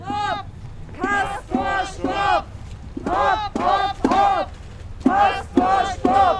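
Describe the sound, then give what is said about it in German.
A crowd of anti-nuclear protesters chants in unison during a spontaneous demonstration march at Biblis railway station shortly before the arrival of a Castor train, shouting loud, rhythmic slogans in short repeated bursts with brief pauses between phrases, over a low steady background rumble. “Dort hatten Atomkraftgegner schon seit zwei Tagen Mahnwache gehalten und kurz vor der Ankunft der Castoren auch noch einen spontanen Demonstrationszug gestartet.”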